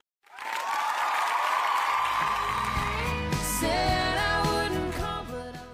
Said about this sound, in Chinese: 此处有掌声送给你我共同的坚持。